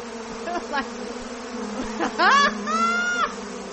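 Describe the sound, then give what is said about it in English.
A huge bee swarm drones in a dense, continuous buzz that holds steady from start to finish, with a few brief higher warbling tones rising over it partway through. “a stealth supersonic uh, jet um, but it could not handle one very unlikely adversary a huge swarm of bees ah they make it bee proof”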